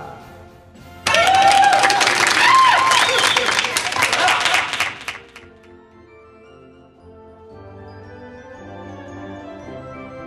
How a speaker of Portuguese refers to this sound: Muito obrigado. Palmas para ela.